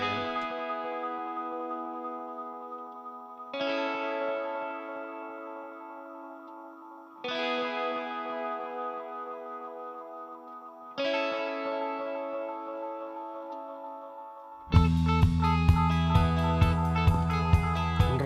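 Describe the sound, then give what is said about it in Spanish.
A theme tune, a cover of a very well-known dance hit: four repeated swelling chord phrases with a processed, effects-laden tone, then a full band bursts in with a steady driving beat. No voices. “la sintonía del Sonidos y sonados del mes eh, de octubre es una versión de un tema súper conocido”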